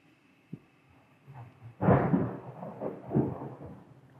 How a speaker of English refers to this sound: Can they hear that? There's a storm going on. There is a storm.